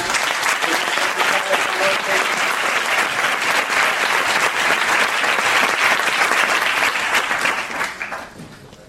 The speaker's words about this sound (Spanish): De manera que pues un gran aplauso